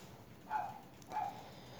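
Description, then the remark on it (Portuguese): A dog on the street barks twice, two short, spaced barks that sound faint and muffled against a low background hum, with no one talking. “Que cachorro chato do caralho.”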